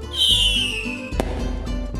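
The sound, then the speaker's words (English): A firework, whose whistle comes from layers of organic salt and potassium perchlorate, screams upward then glides slowly down in pitch, followed by a sharp loud bang about a second later, with low rumbling crackle continuing underneath. “Fireworks makers discovered that adding layers of organic salt and potassium perchlorate created a whistling sound,”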